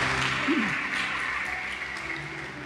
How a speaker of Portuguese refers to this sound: Quem crê pode dar um aplauso a Jesus por isso. Louvado seja o nosso Deus.